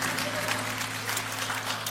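Steady audience applause, a dense, continuous patter of many hands clapping at an even level throughout, with a low steady hum underneath and no one speaking.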